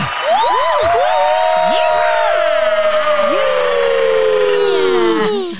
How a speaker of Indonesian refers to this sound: Tepuk tangan untuk Barsena.